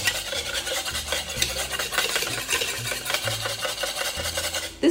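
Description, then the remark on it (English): A whisk beats steadily against a bowl, a continuous rapid scraping and clicking that runs for the whole stretch with no voices, as oil is whisked into eggs to emulsify them. “take a deep breath keep whisking hold off a second on the oil collect yourself and get back into it i'm making this sound a lot scarier than it is it's really not that scary you're just emulsifying oil into eggs no big deal”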